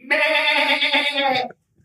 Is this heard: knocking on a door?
no